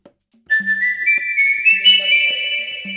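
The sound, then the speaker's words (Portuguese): A clear, sustained whistled melody begins after a brief pause, its pitch stepping gradually upward over a few seconds, with low, pulsing accompaniment tones repeating underneath. “obrigado a todos que, em busca da arte e da vida, se arriscam no fio da navalha ao som desse assobio.”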